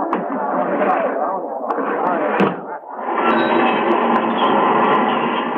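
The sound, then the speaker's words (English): Steady clattering rumble of a streetcar ride, loud and continuous, with a brief dip partway through before the rolling noise resumes, faint murmuring voices mixed in. “To me, a streetcar ride is just a mob scene parted in the middle.”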